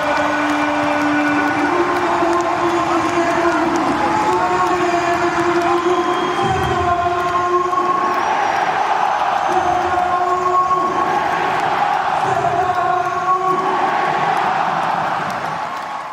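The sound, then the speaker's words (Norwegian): Football fans in a stadium stand, about 6,688 in attendance, sing a loud, sustained chant, many voices holding drawn-out tones that rise and fall in pitch over a steady roar, with no other talk on top. “Hør, hør bakgrunnen her nå! Hør spikeren!”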